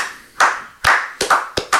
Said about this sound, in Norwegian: Kan vi ta en klapp for den?